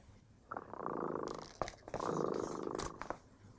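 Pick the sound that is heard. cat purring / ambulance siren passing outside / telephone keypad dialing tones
cat purring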